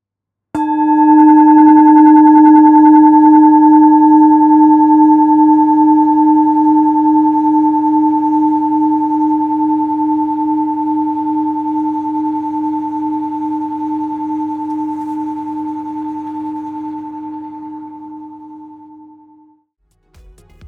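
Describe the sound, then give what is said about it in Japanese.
A singing bowl is struck once and rings with a steady, shimmering hum, its low fundamental and bright overtones sustaining for nearly twenty seconds while slowly fading away. “次はシンギングボールこの音も心が軽くなります”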